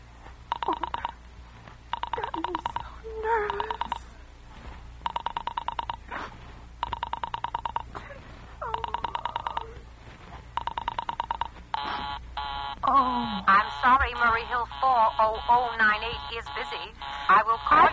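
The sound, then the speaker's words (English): A telephone busy signal on a call placed through an operator: a steady string of buzzy on-off tone bursts repeating evenly for about twelve seconds, then giving way to a voice speaking over a faint hum. “I know it's busy.”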